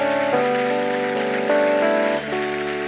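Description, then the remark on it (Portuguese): An audience at a Christian worship service applauds loudly in praise of God in a steady, dense wash of clapping, while sustained keyboard chords hold and shift underneath. No one speaks. “Então já começa aplaudindo ele bem forte.”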